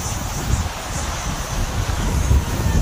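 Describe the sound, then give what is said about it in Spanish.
Steady wind blowing hard across the microphone, a constant low rumble with gusty buffeting and a faint airy hiss above it, with no voices present. “Y es que se confunde por el puto aire que hay, mi gente.”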